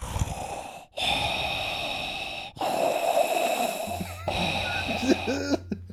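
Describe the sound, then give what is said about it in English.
Loud, heavy breathing right up against a microphone during a stream, long rasping inhales and exhales in about three slow cycles separated by brief pauses, with a faint low hum toward the end. “This is the Darth Vader breathing.”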